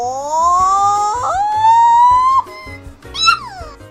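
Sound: goat bleating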